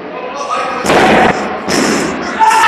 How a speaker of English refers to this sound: Like a Death Valley driver into a steel chair